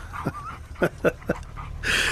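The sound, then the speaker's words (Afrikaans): A dog whimpers, a thin whine followed by several short, yelping bursts in quick succession, ending with a rush of breathy noise. “Gelukkig verstaan jy hond Afrikaans.”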